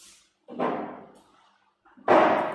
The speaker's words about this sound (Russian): Вы слышали звук? Нет, это не стул. Это я пернул.